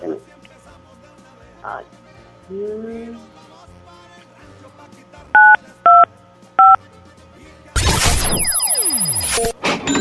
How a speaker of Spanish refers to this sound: Ahora lo único que falta es que en su teléfono, madre, me ayude y le marque 925 para que gire la ruleta y saber cuánto se lleva de recarga en tiempo aire para su teléfono.